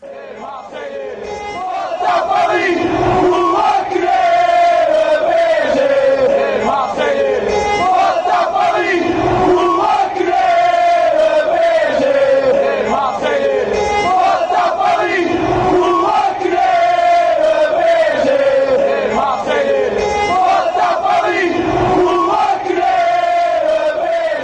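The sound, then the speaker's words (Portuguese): A huge stadium crowd of Marseille football supporters sings a chant in unison, loud and sustained, with a steady thumping beat of drums or claps underneath the massed voices. “Então, que, que La Rente Olympique cante junto. Vamos lá.”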